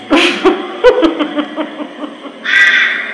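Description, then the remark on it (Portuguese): A voice imitates a crow's cawing: a harsh, raspy caw at the start and another near the end, with rough throaty vocal sounds in between, loud. “Acho esse corvo que tá aí veio de onde?”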